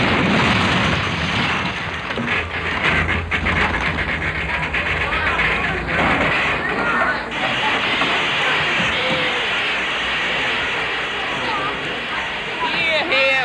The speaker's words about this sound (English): I'll pull the cord up there, the emergency cord. That will put on the brakes and stop the train.